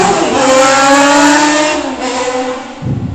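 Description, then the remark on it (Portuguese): A motorcycle roars past outside, its engine a loud, steady buzzing drone with a whining harmonic tone that eases off slightly and shifts lower toward the end. “A motoca passou aqui.”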